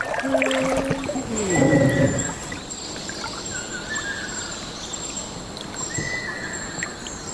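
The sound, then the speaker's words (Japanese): A Ryukyu ruddy kingfisher, a bright red kingfisher, gives a single descending, rolling whistled trill from deep within a mangrove forest, set against steady ambience with trickling water and a thin, high insect drone. “私たち以外人間は誰もいないマングローブの森でその奥から届いたのがこの琉球赤小瓶の鳴き声ですピーロロロロロピーロロロロってね聞こえましたよねすごく綺麗な鳴き声で”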